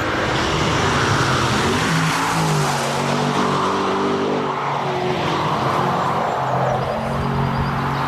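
A powerful four-wheel-drive Aston Martin car engine revs and roars continuously, its pitch rising and falling as it accelerates, with faint tyre noise and birdsong in the background.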